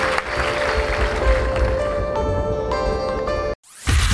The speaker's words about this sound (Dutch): Geef een applaus.